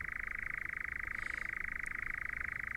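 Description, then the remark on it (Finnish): A European nightjar churring: a steady, unbroken mechanical trill like a humming spinning wheel, holding the same pitch throughout, prominent over a quiet night background. “Kehreän rukin surinaa muistuttava surumielinen sointi on monille vanhemmille ihmisille tuttu yöllinen juhannuksena ja äänimaisema.”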